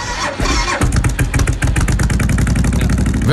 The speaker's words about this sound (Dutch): Eh, dit is een Suzuki VL 1500 met een volledig aangepaste uitlaat is wat te horen ook, hè? Lekker geluidje erin.